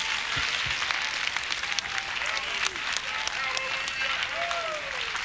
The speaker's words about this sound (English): Clap your hands, California, if you believe it.